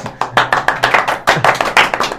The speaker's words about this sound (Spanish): ¡Aplausos!